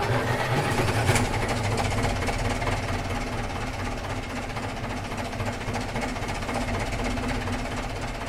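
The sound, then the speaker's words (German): A thick, steady drone of twelve tractor engines idling and chugging together in a musician's 1996 concert for twelve tractors, overlapping rumbles and knocking rhythms filling the space at a constant, fairly loud level, with no voices. “Ein besonderes Happening ist auch das Konzert für zwölf Traktoren, mit dem … 1996 dem Landleben und den hart arbeitenden Landwirten ein klingendes Denkmal setzt.”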